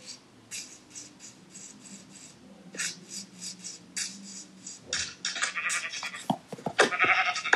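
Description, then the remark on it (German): Video-game sheep bleats repeat in short, bright bursts as the player attacks to kill the sheep, joined toward the end by a busier flurry of scraping and hitting sound effects that grows louder. No one speaks. “Ich kill mal hier das Schaf.”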